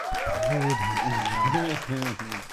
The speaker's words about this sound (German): Ich denke so, Alter, jetzt macht er wieder seine Klatschtherapie.